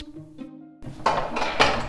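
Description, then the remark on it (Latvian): A heavy storage room door in the Ventspils Museum storage is pulled open: a brief tonal creak, then a loud, rough scraping grind that surges twice as the door swings, with no voices. “Nākamās cietuma, cik jums tās cietuma durvis ir?”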